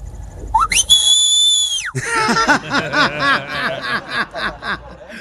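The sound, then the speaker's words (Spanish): A loud, piercing human whistle swoops upward and holds steady for about a second, a calling-style whistle of the kind Latino parents use to call their children, then cuts off and bursts of snickering laughter follow. “Sí, ese es un silbido como internacional”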